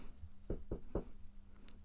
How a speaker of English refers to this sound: That was me knocking. Touch wood.